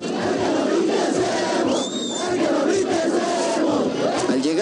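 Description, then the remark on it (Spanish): A large crowd at the Chopo chants loudly in unison a rhythmic, jeering, threatening taunt, "el que no brinque es emo", repeated over and over, with the dense roar of many voices throughout and a brief whistle cutting through. “Comenzaron los gritos de amenazas, de burlas. Escuchen este grito, el que no brinque es emo.”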